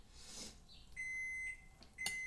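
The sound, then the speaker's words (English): An oven's electronic signal sounds to show it is preheated: a sustained high-pitched beep followed by a couple of shorter beeps, clear and steady in tone, with no one talking. “And the oven is preheated.”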